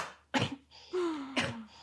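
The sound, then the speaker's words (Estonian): Two harsh coughs brought on by laughing, separated by a strained, voiced wheezing breath that slides downward in pitch, with no talking. “see naermine kutsub esile koledaid köhatusi, ma väga vabandan.”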